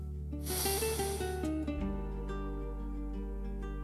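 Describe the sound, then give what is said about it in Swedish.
A long, airy inhale through the nose swells for about a second, fairly loud, then fades, leaving a steady, sustained musical drone with soft tones playing underneath. “Andas in igen.”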